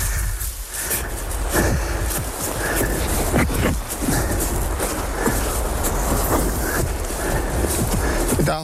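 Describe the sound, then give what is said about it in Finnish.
A steady, loud rush of flowing water from the Sarsi waterfall (Sarsin putous) on the Sarsjoki river, heard from a trail along the river on a morning hike, fills the whole clip, a dense hiss and roar with occasional sharp clacks and thumps cutting through. “Ja käydään tuossa äh, kilometrin päässä on tuo Sarsin putous. Niin siinä käydään vähän tämmöinen aamupäivälenkki. Virtaus kuuluu jo.”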